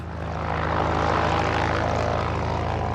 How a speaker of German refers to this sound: Anfang Juni 2010, Flughafen Berlin-Schönefeld. Eine kleine zweimotorige Propellermaschine hebt von der Startbahn ab.